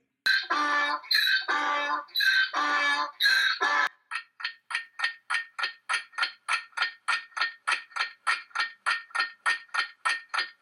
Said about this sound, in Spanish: Y la respuesta es... ¡El burro!